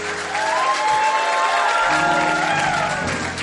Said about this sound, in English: Clap for Jesus.